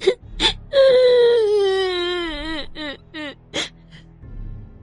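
A girl crying in a bathroom after falling on the floor, hand over her eyes: one long, loud, high-pitched wail that slowly slides downward, followed by a few short, choppy sobs, with no talking.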